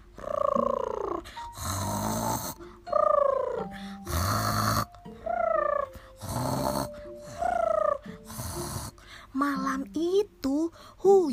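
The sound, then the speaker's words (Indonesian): A run of varied snores, one after another with short gaps: rasping, breathy inhales alternate with higher, wavering voiced snorts, performed by a voice imitating a calf, two foals, three kittens, four puppies, five lambs, six chicks and seven ducklings all snoring together. “Seekor anak sapi, dua anak kuda, tiga anak kucing, empat anak anjing, lima anak domba, enam anak ayam, dan tujuh anak itik mendekur pulas bersama.”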